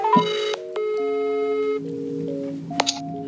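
An outgoing phone call to Rigspolitiet, the Danish national police, rings on the line: steady electronic ring tones in short bursts with brief clicks between them, clear with no one talking.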